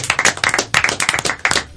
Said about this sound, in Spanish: Un aplauso de nuevo para ustedes.